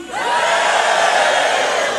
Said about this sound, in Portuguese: Você pode dar um grito aí de júbilo?